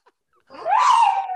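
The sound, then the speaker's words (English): A female pet dog lets out a single drawn-out howl that rises in pitch and then holds steady, fairly loud, with no talking over it. “Is that a bark or like a howl? It's a howl.”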